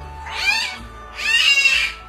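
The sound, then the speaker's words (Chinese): Two drawn-out, high, mewing cries from two South China tiger cubs, born on New Year's Eve and just one month old, the second slightly longer, wavering and cat-like, with no talking over them. “你听，这就是我的两个宝宝，他们可是在跨年夜出生的呢。”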